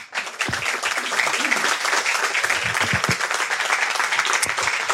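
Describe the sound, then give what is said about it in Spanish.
An audience breaks into steady applause for the team behind an audio fiction, a dense crackle of many hands clapping at once that holds at a fairly loud, even level throughout, with a faint voice or two underneath. “Entonces quiero eh, que deis un aplauso a, ¿están todos?”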